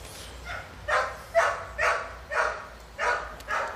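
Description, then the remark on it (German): A dog barks repeatedly in a steady rhythm, about seven sharp barks roughly half a second apart, moderately loud, with no one speaking over them. “Ich sehe einen Hund.”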